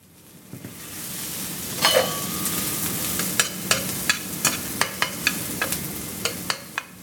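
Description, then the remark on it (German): Steady frying sizzle in a pan as carrots, peppers, onions and meatballs cook, with a string of sharp scraping clicks from a utensil stirring and pushing the food around, fairly loud, no voices; at a Caritas beider Basel cooking course with star chef Pascal Steffen of Restaurant Roots. “Rüebli, Peperoni und Zwiebeln werden dünstet, Reis kocht und Hackbälle brötelt.”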